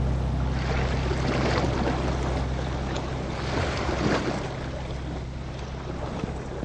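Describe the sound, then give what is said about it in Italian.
A Peruvian navy tugboat's engine drones steadily at sea as it carries people into the Humboldt Current, 90 miles off the coast, low and constant, with wind buffeting the microphone and waves washing and splashing around the hull throughout. No one speaks. “Un rimorchiatore della marina peruviana ci sta portando nella corrente di Humboldt, a 90 miglia dalla costa.”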